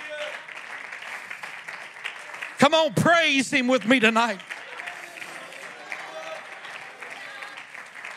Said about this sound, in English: Oh, clap your hands and praise him tonight.